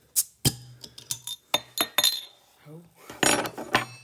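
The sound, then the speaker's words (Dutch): Glasses of Italian Birra Moretti beer clink together several times in quick, irregular succession during a taste test, bright with a short ringing tone, followed by a brief burst of rustling noise and one last clink. “Proost. Cheers.”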